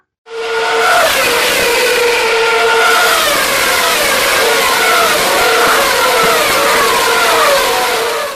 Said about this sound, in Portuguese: a primeira corrida que foi na Austrália, é, os motores passando, os carros passando a milhão ali, e a galera conversando na arquibancada de boa.